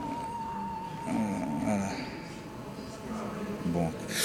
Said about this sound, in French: une belle sonnerie en tout cas. Ah oui, mais va bien, va être assez radiophonique.